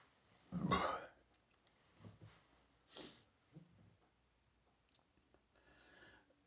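A loud belch after drinking kombucha bursts out near the start, followed by a few softer throaty gulps and breathy noises, with no speech.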